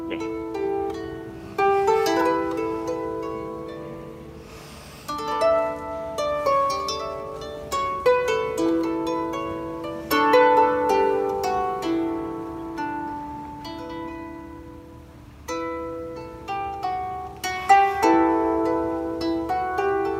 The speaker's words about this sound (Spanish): A ver, la rota, la rota suena así. Venga.